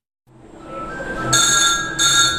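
A wall-mounted telephone bell rings loudly and shrilly in two short bursts in the press hall of the Steidel Verlag publishing house in Göttingen, cutting through a steady background rumble of the large printing press, a new MAN Roland R706 3B.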